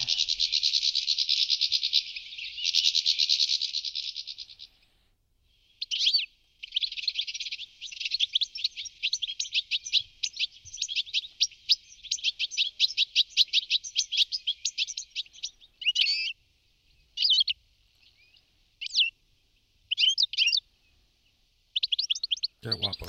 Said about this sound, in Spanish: Muy bonitos. Muy variados. Sí, sí, muy variado. Lo primero eran, eran reclamos de alarma, pero luego ya hemos oído el canto de este pajarillo, el más colorido de nuestra bifauna, ¿eh? el, el jilguero.